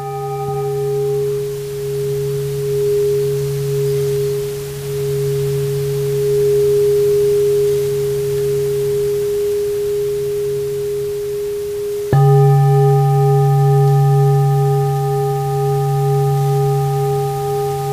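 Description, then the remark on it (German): A singing bowl rings during a short sound meditation with a steady, sustained hum and bright overtones, fading slowly, then is struck again around the twelfth second, swelling louder with a rich, shimmering tone. No talking. “Ja, ich sehe da eine Klangschale liegen und äh, ähm, magst du uns mal eine kurze Klangmeditation geben, so einen Eindruck davon, wie man auf den Klang meditieren kann?”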